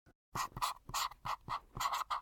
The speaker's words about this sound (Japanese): 一体何を書いているのかはわからないが、松永はそごうの言に従ってサインペンを走らせた。